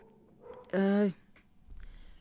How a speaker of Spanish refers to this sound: esos ladridos que escuchen es que porque seguramente alguien anda allá afuera, o no sé qué están viendo